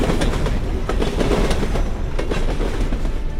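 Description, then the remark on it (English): A train rolls past outdoors, a loud, steady rumble with a rhythmic clickety-clack of wheels over rail joints throughout, and no voices. “Of course, and watch out, that train is going to drip on you.”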